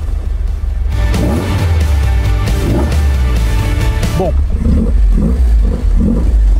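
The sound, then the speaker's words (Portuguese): A classic Alfa Romeo car engine with Weber carburetors revs loudly in a few throaty, rising bursts over a deep rumble, then drops back to idle as a man starts talking. “deixa o motor dar uma giradinha. Deixa os Weber darem uma puxadinha de ar.”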